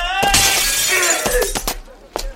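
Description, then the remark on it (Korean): The glass windows of a train station and a police box shatter with a loud crash, followed by a rapid spill of bright, tinkling shards and several sharp breaking hits over a couple of seconds, with no voices. “늘 하듯이 우통을 훌떡 벗고 외치면서 길거리에 납작 엎드린 가게 유리창을 발로 차기 시작해서 몇 달 동안 걸렀던 일과를 하루 만에 한꺼번에 해치우려는 듯 기차역과 팥줄서의 유리란 유리는 몽땅 깨뜨렸다.”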